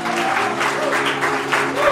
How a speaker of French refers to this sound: Oui, on peut l'applaudir.